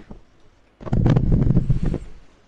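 A man's breathy rush of air into the microphone lasts about a second, a soft rumbling exhale with no talking, preceded and followed by near silence.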